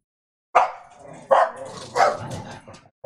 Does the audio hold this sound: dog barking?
yes